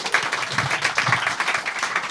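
An audience claps as a vote, by those who think an effect in a video was a post-production effect; a dense patter of many hands at moderate loudness that holds without building or fading, with no clear voices on top.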